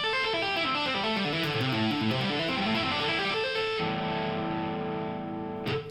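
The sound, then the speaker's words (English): Fast tapped electric guitar notes with distortion, played without muting the strings below the tapped notes, the unmuted strings ringing together into a noisy, smeared wash of tones, then sustaining and cutting off abruptly near the end. “If you don't do it, it sounds like this.”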